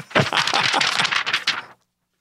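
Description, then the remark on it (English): Crisp rustling and crackling of a real sheet of paper being handled in a studio, a dense burst of crinkles for about a second and a half before stopping abruptly into silence. “Well, the thing is, I, it's a real paper, real live paper.”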